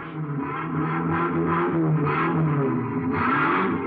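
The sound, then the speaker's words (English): A vehicle engine runs and revs steadily inside the Haines U Drive truck rental garage, a continuous loud rumble with swelling surges and faint mechanical clatter in the background. “Thinking back to the truck that had almost run Turkey down, I went to the Haines U Drive truck rental garage.”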